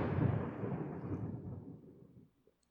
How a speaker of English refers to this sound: Thunder's nice.